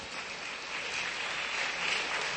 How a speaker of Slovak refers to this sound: Ďakujeme veľmi krásne za tieto vaše slova. Zaslúžia si veľký potlesk.